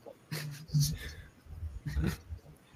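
A dog whimpers and fusses in two short clusters of whiny, strained vocal sounds separated by a brief pause, moderately loud.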